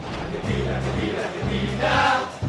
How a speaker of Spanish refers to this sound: Y ya comienza el gran concurso de hinchadas de todos los equipos del Mundial. Objetivamente, para mí, va a ganar esta.